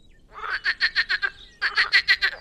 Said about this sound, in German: Und so ruft ein Seefrosch.